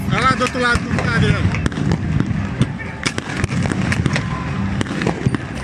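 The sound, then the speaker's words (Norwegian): Tear gas canisters being fired in Brasília, Brazil, as thousands of people dressed in yellow and green, with gas masks and Brazilian flags, storm buildings including the Congress and Supreme Court, heard as irregular sharp pops and bangs over a constant roar of crowd noise, with shouting voices most prominent at the start. “Til lyden av tåregass.”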